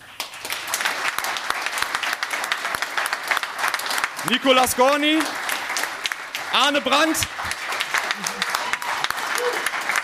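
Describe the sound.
Sustained audience applause fills the whole stretch, a dense wash of many hands clapping, while an announcer's voice calls out over it in two short bursts.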